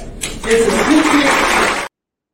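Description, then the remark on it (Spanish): A crowd at a political event bursts into dense, steady applause lasting about a second and a half, with some voices calling out over the clapping, before it cuts off abruptly into silence. The applause follows a speaker's tribute to Santiago Taboada. “Ándale, los tres mosqueteros y D'Artagnan redivivos en esta edición de otros aplausos, muchos aplausos entre ellos, porque a fin de cuentas, pues la verdad es que son actos meramente políticos.”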